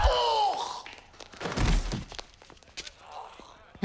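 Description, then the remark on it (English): A few light, hollow taps of a ping pong ball bouncing in the film Balls of Fury, irregular and fairly faint, mixed in with a brief descending whine and a louder rushing clatter, with no one talking. “Could you hear what they were playing? It sounded like ping pong.”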